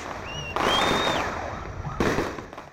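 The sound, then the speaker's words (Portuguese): Fireworks go off in two loud bursts, each followed by a sustained crackling rumble, with high whistling streaks rising over the din, marking the start of Pelé's funeral procession. No voices are heard. “O foguetório, como quando Santos entrava em campo, marcou o início do cortejo.”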